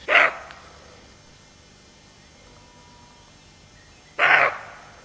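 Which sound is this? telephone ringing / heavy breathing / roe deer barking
roe deer barking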